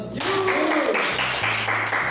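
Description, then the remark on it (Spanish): A crowd breaks into loud, steady applause that starts suddenly and keeps going without a break. Dense clapping fills the whole stretch, with a few faint voices mixed underneath. “Un aplauso para ustedes, chicos.”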